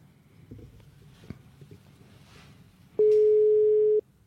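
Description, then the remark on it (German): After a few seconds of quiet background rumble, a loud, steady telephone ringback tone sounds once for about a second during an outgoing call, then cuts off. “Oh, es klingelt.”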